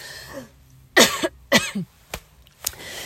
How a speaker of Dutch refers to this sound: Excuus, ik verslik me.